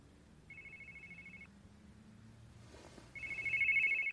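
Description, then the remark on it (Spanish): A mobile phone rings twice, each burst a steady electronic trill lasting about a second, the second ring louder than the first, over faint background noise, before the phone is picked up. “Coge el móvil.”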